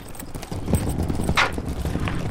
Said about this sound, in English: He rolls his suitcases up the driveway to the truck he just sold to a friend.